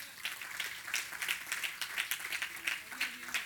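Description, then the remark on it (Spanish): An audience applauds the Lord during an afternoon church service, many hands clapping in a dense, steady, fairly rhythmic patter throughout, with faint voices murmuring underneath. “no un aplauso al Señor esta tarde.”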